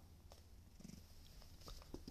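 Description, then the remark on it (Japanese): A cat named Tom purrs softly and steadily as he is being touched, a low continuous rumble with a few faint rustling touches on top and no talking. “えー、こうやってこう構い出すとですね、離れていくのが、猫なんでしょうかトムなんでしょうかねえ。”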